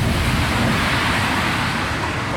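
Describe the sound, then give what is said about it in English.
A bus passing on the street outside Woody's in Headingley, a loud, steady roar of engine rumble and road noise that fills the whole moment with no voices over it. “bus is gone.”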